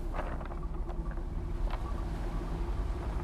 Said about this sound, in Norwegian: Det er ei lita havn på Jærkysten der havet slår rett inn.